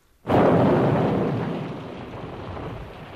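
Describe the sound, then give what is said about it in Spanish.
A sudden, loud crack of thunder bursts in and rolls on as a heavy, steady roar of rain, slowly easing but staying dense throughout. “Y se ha puesto a llover. Ya decía yo que el otoño tardaba mucho en venir. Tormenta tenemos”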